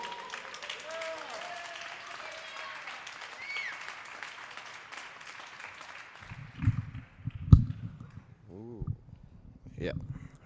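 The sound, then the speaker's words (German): Steady audience applause as a performer comes onto the stage, a dense wash of many hands clapping, gradually fading out over several seconds before a voice begins speaking. “Es war von Super Mario die Rede und er kommt mit Applaus auf die Bühne.”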